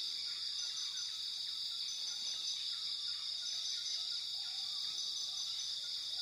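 A steady, high-pitched shimmer of crickets and insects fills the rainforest ambience, with scattered faint bird chirps and calls drifting through the continuous hum. No voices.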